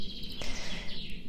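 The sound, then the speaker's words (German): Faint chaffinch song trills over a soft outdoor hush in a spruce monoculture forest in Bavaria, Germany, a brief bright phrase with no one talking. “Ja, du hörst vielleicht die Buchfinken im Hintergrund.”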